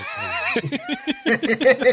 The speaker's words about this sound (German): Ey, Klugscheißer sitzt da im Baden-Baden, Alter, und rülpst hier wie so ein Schwein, Alter.